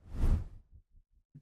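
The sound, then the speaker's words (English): A single loud, breathy sneeze that bursts out and fades within half a second, followed by a few faint, low, brief sounds; no one speaks. “Bless you.”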